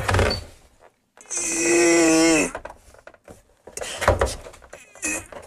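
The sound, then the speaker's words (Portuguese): A tight metal tin lid is pried open with a drawn-out, strained metallic squeal and scrape lasting over a second, followed by shorter clicks and rattles, fairly loud. “Permitam-me que tente abrir a lata aqui em direto.”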